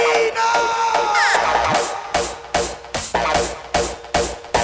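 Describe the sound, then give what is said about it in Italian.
A loud crowd shouts and cheers, with raised voices blending into a dense roar that settles into a steady rhythmic pulse of bursts, like chanting or clapping, about twice a second. “Più casino! Facciamo casino!”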